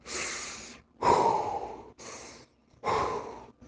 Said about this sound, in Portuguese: Pensa, lembra logo do Darth Vader. O que, que ele está fazendo? Inspirando, expirando.